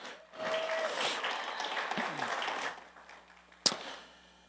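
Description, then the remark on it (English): An audience at Daybreak Church claps in a steady wash of applause that swells quickly, holds for a couple of seconds, then fades, followed by one sharp louder clap at the end. “You guys give her a big round of applause.”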